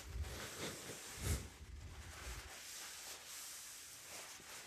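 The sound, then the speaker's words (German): Carbonated lemonade being poured from a can fizzes up and foams over, a steady crackling hiss with a few low handling thumps near the start, no voices. “Ich gerade ein bisschen was ausgeschüttet, beziehungsweise ähm, durch die Kohlensäure natürlich nach oben gekommen.”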